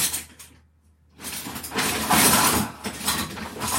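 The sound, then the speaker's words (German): Metal kitchen utensils clink and rattle as someone rummages through a messy kitchen drawer looking for a whisk, with a short pause before a louder, sustained jumble of clattering cutlery. “Und mein Lieblings- Schneebesen, hier der Tellerbesen. Das ist jetzt hier irgendwo im, zwischen den Dimensionen.”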